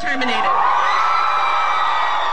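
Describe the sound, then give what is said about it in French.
A large crowd outside a California courthouse cheers and whoops loudly in joy after the court ends an American singer's conservatorship, many high voices shouting and screaming together in a sustained, jubilant roar with no pauses. “Explosion de joie devant le tribunal californien qui a mis fin définitivement à la tutelle qui pesait sur la chanteuse américaine.”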